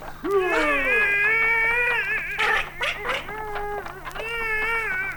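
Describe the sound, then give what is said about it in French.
A baby cries in loud, wavering wails, with a brief break midway before a final drawn-out cry. The sound fills the whole moment, with no talking over it. “Et s'occuper de son joli bébé, car elle a le plus mignon de tous les bébés.”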